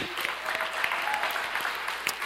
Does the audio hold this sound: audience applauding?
yes